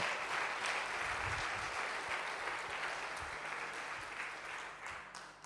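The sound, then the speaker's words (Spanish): A large crowd at a church in Uruguay claps steadily, giving a big round of applause for the Dominican Republic, a dense, continuous wash of hand claps with no pauses, holding loud throughout and easing only slightly toward the end. “Oiga, demos un aplauso grande a República Dominicana.”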